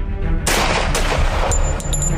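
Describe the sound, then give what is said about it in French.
Two sharp gunshots crack out about half a second apart, loud and echoing, from the direction of the street as the first grenades are thrown during a police assault. A few fainter pops and a lingering rumble of reverberation follow, with no voices. “Et au moment où on lance les premières grenades, on entend deux coups de feu vers la rue.”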